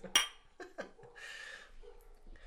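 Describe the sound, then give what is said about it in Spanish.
Glasses clink together once in a toast, a sharp bright ring at the start, followed by softer clattering and a brief hissy rustle. “Cheers.”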